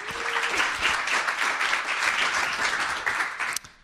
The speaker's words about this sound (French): applaudissements.